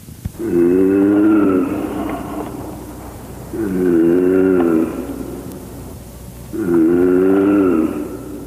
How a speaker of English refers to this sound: When sound waves impinge on hard surfaces, they are reflected, often we may hear the reflected waves or echoes a short time after we hear the original source of the sound, like this.